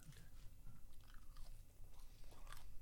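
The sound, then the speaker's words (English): Biting and chewing of crustless food, with moist, crunchy mouth sounds and occasional sharper bites over a steady chewing rhythm for a few seconds, no talking. “it's really hard to pick your angle of attack with this because there's no crust”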